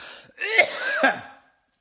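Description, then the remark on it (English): A couple of harsh, raspy coughs from dust in quick succession, fairly loud, followed by quiet. No one speaks. “Is that what, what it's for the uh, the cough?”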